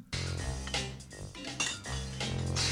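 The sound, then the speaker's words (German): An instrumental music track with bright, metallic brass-like tones playing sustained chords, fairly loud and continuous with a few brief dips, and no voices. “Ich habe eine Instrumentale hier, äh, bei der mich einfach.”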